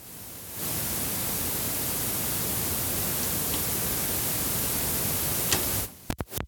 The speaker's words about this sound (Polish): No właśnie, tutaj już nawet jak tak zrobiłem to, jak tak zrobiłem to nawet magnetofon sam wzmacniacz jeszcze przed włączeniem jakiejkolwiek kasety generuje taki szum.